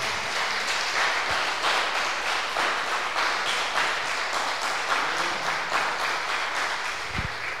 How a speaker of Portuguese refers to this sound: Pode aplaudir o Senhor por esta palavra.